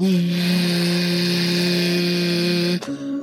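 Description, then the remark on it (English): A voice imitates a Hoover vacuum cleaner with a loud, steady, buzzing drone held at one pitch for nearly three seconds, then breaks off abruptly and shifts to a slightly higher hum. “Like I eat food like um I don't know, like a Hoover vacuum, like,”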